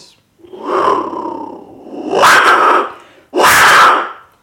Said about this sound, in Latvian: Tas, ko jūs tikko dzirdējāt, ir Meksikas seno iedzīvotāju maiju. Viens no sakrālajiem dzīvniekiem - jaguārs, jaguāra balss.